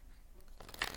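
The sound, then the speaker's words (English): A deck of oracle cards is shuffled for a Taurus reading in a short, papery riffle: a soft, crisp rustle that swells to a brief flutter in the second half. Nobody speaks. “Oracle cards are a little sticky. I'm going to shuffle one more time.”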